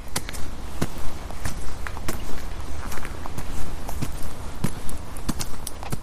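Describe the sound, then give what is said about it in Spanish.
Footsteps of a person walking at a steady, unhurried pace, each step a sharp, crisp tap repeating in an even rhythm over a constant low rumbling background, with no talking. “Y sí, esto que escuchamos son unos pasos. Es el caminar, la acción más común de todos nosotros los seres humanos.”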